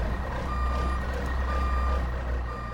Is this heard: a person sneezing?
no